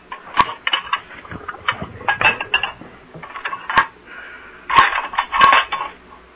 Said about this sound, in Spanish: voy a, poner estas vasijas en el fregadero para que no nos molesten las moscas.